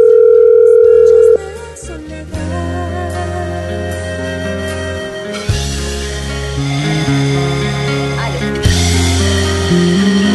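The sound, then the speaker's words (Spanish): A WhatsApp call connecting on a mobile phone: a steady electronic beep, then a looping synthesized ringback melody that repeats in even phrases, fairly loud, with no talking. “Ella se está desplazando actualmente en, vía un vehículo justamente, estamos eh, vía el celular estamos en WhatsApp, estamos tratando de comunicarnos con ella”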